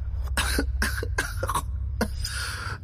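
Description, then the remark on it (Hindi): Five or so harsh coughs from a woman who has just brushed dust off a table in a dusty, long-unused room come in quick bursts, with a brief pause before the last one, over a steady low background hum. “दिव्या ने पास रखे एक टेबल पर अपना हाथ रखा और तुरंत धूल झाड़कर खांसते हुए विशाल से कहा”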